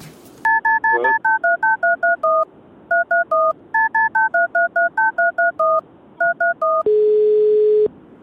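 A rapid sequence of about twenty electronic keypad beeps, each a short two-tone chirp in quick bursts, followed by a steady one-second tone as the call connects.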